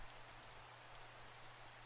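Steady rain falls in a continuous hiss, with a low hum running beneath it. The sound is even and unbroken for the whole stretch, with no voices.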